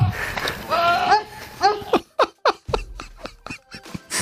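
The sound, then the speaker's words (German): A goat standing in a meadow lets out a loud, drawn-out, wavering scream that sounds eerily like a person yelling 'help', followed by a few short, choppy vocal bursts. “die Schreie eben nicht von einem Menschen in Not kommen, sondern dass da eine Ziege auf der Wiese steht, die irgendwie so schreit, dass es klingt, als würde ein Mensch Help rufen.”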